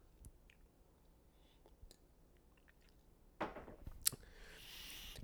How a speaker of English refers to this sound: Sip of water.